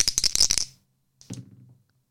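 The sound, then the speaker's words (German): Two dice rattle briskly in a cup or hand with a quick burst of clicks, then after a short pause tumble and clatter onto a hard surface, fairly loud, landing on a total of 9. “Zwei Würfel, ihr hört es.”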